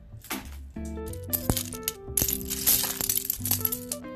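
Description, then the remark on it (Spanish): Plastic Lego bricks clicking and rattling together as a Lego tank figure is built, with repeated sharp clacks and rustling as pieces are handled and snapped in place, over a steady musical tone underneath. “No sé si se escucha el sonido de los legos.”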